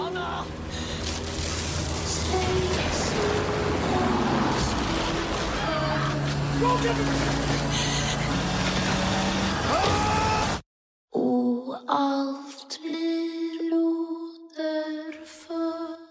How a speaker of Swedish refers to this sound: Så dramatiskt lät det i trailern till Den blomstertid nu kommer. Någonting så ovanligt, på gränsen till unikt som en svensk katastroffilm.